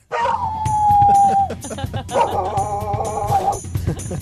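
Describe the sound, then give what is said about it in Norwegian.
Dogs howling in two long, loud drawn-out cries: the first a steady held note, the second a wavering chorus of overlapping howls, with faint rhythmic clicking behind them. A sound effect played on Radio Norge's Morgenklubben whenever dogs are discussed. “Det er en lyd som vi spiller hver gang vi snakker om hund.”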